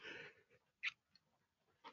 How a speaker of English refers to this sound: yeah, he yawns. It happens.